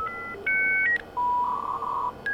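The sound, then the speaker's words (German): Acoustic coupler modem dialing in, with a telephone handset laid on it: a quick series of electronic touch-tone beeps, then a longer steady tone that wavers slightly, and one more short beep. They sound clear, with no voices. “Äh, da musste man den Telefonhörer drauflegen und dann machte das so komische Töne und wählte sich irgendwo ein.”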